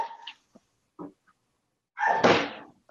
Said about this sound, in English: i am so sorry to the audience for my dog there uh, let me see if i can close the door and make that better for you all